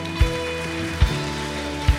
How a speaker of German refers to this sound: Lass uns hier einen Applaus geben.